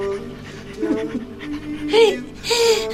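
A dog pants in a few breathy, rhythmic bursts, with a faint whine mixed in toward the end, over a quiet low background.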